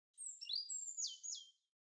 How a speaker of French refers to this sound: Un volatile au plumage noir et au bec jaune. Le merle insiste.